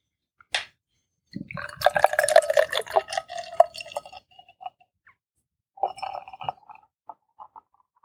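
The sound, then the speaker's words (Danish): A sharp click, then canned Guinness stout glugs and splashes into a glass for a few seconds, followed by a shorter second pour and a few faint trailing drips, fairly loud. “så er der jo det, man altid skal kigge på, når man har hældt sådan en Guinness op.”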